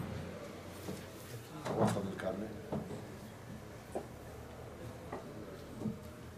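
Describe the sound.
A chair is dragged and set down as one more chair is brought in and placed, with a scraping shuffle followed by a few scattered wooden knocks and bumps, while faint voices murmur in the background.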